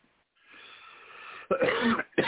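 A breathy intake gives way to a loud, harsh cough, followed quickly by the start of a second cough burst, with no talking.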